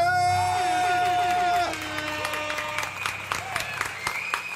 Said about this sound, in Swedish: Vi kör såklart en applåd och en... Liten, liten tuta på det!